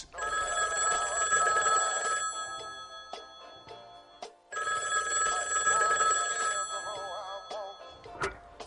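A telephone rings twice in long electronic trilling bursts, separated by a pause, with a few clicks and knocks in between; clear, no one speaking.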